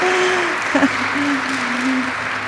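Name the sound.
audience applause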